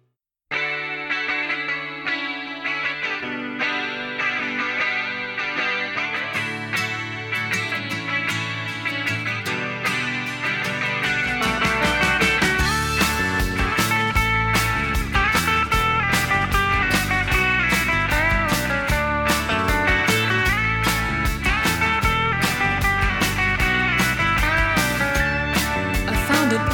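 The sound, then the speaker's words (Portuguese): A 1980s rock song plays, opening with shimmering, effects-heavy guitar chords before drums and the full band crash in about halfway through, growing louder and busier with distorted guitar. “durou apenas alguns dias mas foi o suficiente para produzir um dos grandes hits dos anos 80 que a gente ouve agora.”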